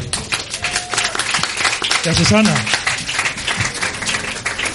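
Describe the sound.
A steady burst of applause, dense crackling hand claps filling the whole stretch at a fairly loud level, with a person speaking briefly over the clapping midway through.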